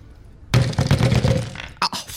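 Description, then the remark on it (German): A burst of rapid, hard knocking on a door with a person's knuckles, showing fast, forceful knocking: a quick flurry of loud raps for about a second, then two sharper, separate knocks. “Das war mein Knöchel, der ist jetzt.”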